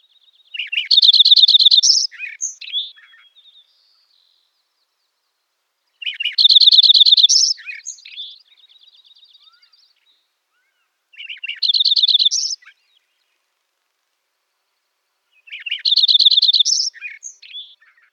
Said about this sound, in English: Where I live, Lincoln sparrows are most commonly seen in our mountains. The rising and falling pattern of the song reminds me of a mountain shape.